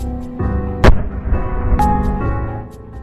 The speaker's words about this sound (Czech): ale najednou viděli jsme směrem k letišti výbuchy.